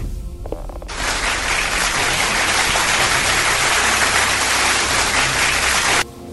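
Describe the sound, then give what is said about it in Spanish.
A burst of dense, steady applause for Carly Flores's song request starts abruptly, holds at an even, loud level for about five seconds, then cuts off suddenly. No voices are heard. “Suficientes aplausos para Carly, basta.”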